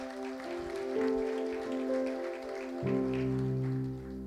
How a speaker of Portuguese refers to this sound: Na salva de palmas a Jesus, querido.